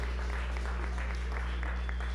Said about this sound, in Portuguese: Dá salva de palmas a Deus aí.